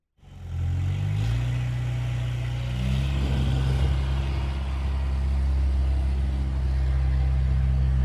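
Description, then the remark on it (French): The loud, deep engine of a tractor parked at the edge of a path idles in a steady, deafening rumbling drone with strong low harmonics, its pitch shifting slightly at the start and then holding constant. “Et surtout, on se dépêche de dépasser le tracteur garé au bord du chemin dont le moteur fait un bruit assourdissant.”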